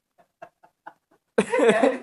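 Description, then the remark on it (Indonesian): A loud, harsh, raspy crow caw from a soundboard button bursts out near the end, preceded by a handful of faint, short, evenly spaced chirps. No one speaks. “Tombolnya ada gagak doang lagi anjing.”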